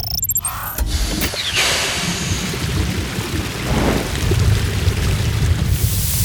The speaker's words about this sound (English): Oh no, the water hose is not enough. The fire is growing bigger.